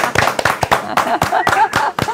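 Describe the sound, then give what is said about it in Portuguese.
A short burst of applause: a handful of people clapping in quick, uneven rhythm, sharp bright claps over a continuous murmur of voices and cheering. “Aê, uma salva de uma palmas para a meu perrengue.”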